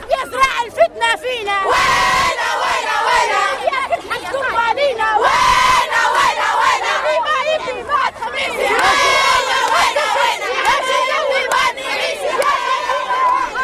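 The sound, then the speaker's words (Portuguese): A crowd of young voices, schoolchildren in school uniforms in Libya, shouting and chanting together in support of Gaddafi, loud, with overlapping cries and rhythmic bursts that swell and fall throughout. “Idolatrar o líder é um sentimento que é incutido bem cedo, logo nas escolas, e em que miúdos de fardas escolares também se atropelam no apoio a Gaddafi.”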